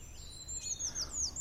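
A Eurasian treecreeper calls with a quick run of very high, thin, downward-sliding notes, several short sweeps in succession over a low, steady background rumble.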